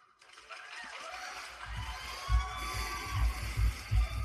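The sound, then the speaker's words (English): A canned applause effect played from a soundboard button, a dense wash of crowd clapping that holds steady for several seconds, with muffled low thumps and faint voices underneath. “How come my clapping button is there?”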